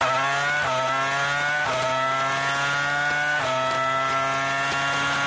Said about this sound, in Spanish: Esto es un V10, época mm, de años 2000 de Fórmula 1,